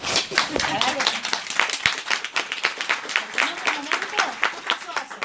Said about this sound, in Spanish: Entonces los felicito, chicos. Dense un aplauso.